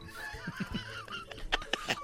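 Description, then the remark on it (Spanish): A parrot squawks in a series of harsh calls, opening with softer warbling chatter and ending in three loud, sharp squawks in quick succession. “Es que este perico.”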